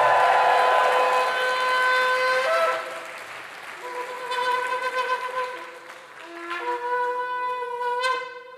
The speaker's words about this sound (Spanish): Dele fuerte ese aplauso al Señor y que suene la trompeta.